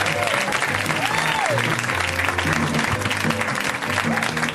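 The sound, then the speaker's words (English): Loud, sustained applause from a large late-night TV audience for Denver comedian Adam Cayton-Holland on his late-night TV debut, dense steady clapping filling the whole stretch with a few cheers and whoops rising over it. “Give it up for him. Come on.”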